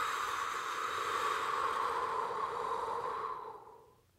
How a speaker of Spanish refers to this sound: Vamos a cerrar nuestros ojos y vamos a comenzar respirando profundamente, exhalando por la boca.